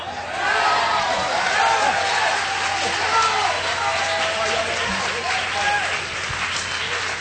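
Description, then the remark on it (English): Sustained audience applause during a preached sermon, a dense steady patter of many hands clapping at an even loudness for several seconds, with faint crowd voices mixed underneath. “Come on, hold your applause for just a minute.”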